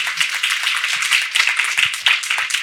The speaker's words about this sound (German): Ähm, und du hast einen Sonderpreis gewonnen. Erstmal herzlichen Glückwunsch dazu. Dankeschön. Ähm, und hast, ja, großen Applaus dafür.